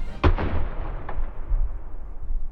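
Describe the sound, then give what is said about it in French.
A loud blast from a French 12 cannon-howitzer (canon obusier de 12, called the Canon de l'Empereur) with a sharp crack and deep booming body, rolling into a rumbling echo, followed about a second later by a second, fainter report. “Et pour gagner cette guerre de Crimée, Napoléon III déploie une pièce d'artillerie française redoutable, le canon obusier de 12, rebaptisé Canon de l'Empereur.”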